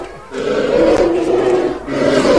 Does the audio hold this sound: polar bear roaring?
yes